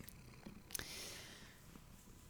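cat purring loudly

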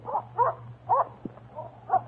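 dog barking and whimpering

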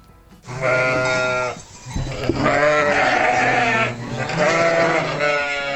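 sheep bleating

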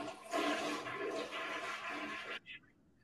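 toilet flushing

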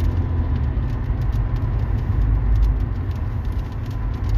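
rain falling

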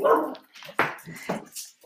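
dogs barking

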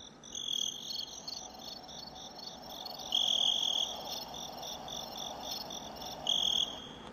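crickets chirping

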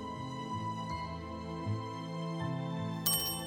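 doorbell ringing

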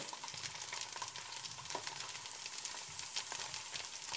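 bacon frying

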